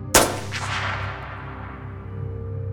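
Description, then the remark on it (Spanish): A single loud gunshot, the second of several, cracks sharply near the start as a pickup truck's engine starts, breaking the truck's rear window; its echo rings away over the engine's steady low rumble that continues to the end. “El segundo disparo llegó cuando el motor arrancaba.”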